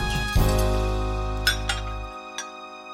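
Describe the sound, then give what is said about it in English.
Several sharp clinks of dishes and utensils knocking together as dishes are done in a kitchen, spaced irregularly over a low steady hum that fades out near the end. No one speaks. “George had to clean up the kitchen and then do all the dishes”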